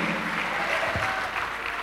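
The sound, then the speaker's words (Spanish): An audience applauds in praise of God with steady, dense clapping that fills the whole moment at an even loudness, many hands blending into a continuous crackling wash. “Dale un aplauso a Dios, hermano.”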